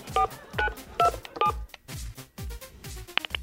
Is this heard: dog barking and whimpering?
no